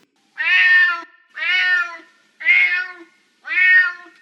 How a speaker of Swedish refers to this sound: Det här är ett misseljud.